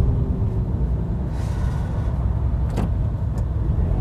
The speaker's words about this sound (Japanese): 一瞬今1分ぐらい止まってまた動き出しましたまあエンジンの音でお分かりかと思うんですけど動き出したらスイスイとこう行っちゃってですね